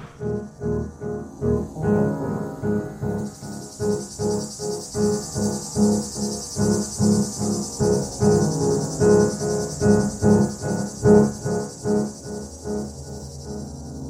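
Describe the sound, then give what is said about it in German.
A cicada chirps steadily and loudly, a dense shrill buzz that pulses rhythmically with no break across the whole stretch, with no voices present. “Und so altert der unsterbliche Geliebte eben immer weiter, schrumpft zusammen, wird immer faltiger, bis er dann eben zu einer kleinen Zikade wird, die nur noch vor sich hin zirpen kann.”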